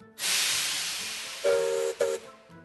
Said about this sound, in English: But next week, there'll be a grinding of the gears as I ask you for the mightiest mechanical marvel in the east of England. It could be the locomotives on the North Norfolk Poppy Line,